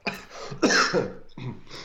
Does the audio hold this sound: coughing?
yes